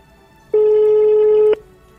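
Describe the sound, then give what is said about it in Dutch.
A phone call ringing on the line: one steady, mid-pitched electronic tone that holds evenly for about a second and then cuts off, with no voices. “Misschien kunnen, die, kunnen haar wel even bellen.”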